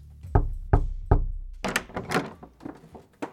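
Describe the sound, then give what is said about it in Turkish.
Three firm, evenly spaced, resonant knocks on the wooden door of a house, made by two men and an Iranian woman agent on the night of 6 October 2020, followed by scuffling, shuffling sounds and a few softer thumps. “6 Ekim 2020 gecesi iki adam ve İranlı kadın ajanın kapısını çaldığı eve artık varmışlardı.”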